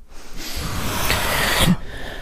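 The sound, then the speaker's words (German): Several people breathe loudly into a microphone at once, a sustained, noisy rush of exhaled air lasting about two seconds, with no talking. “Können wir zum Ende nochmal alle laut ins Mikro atmen?”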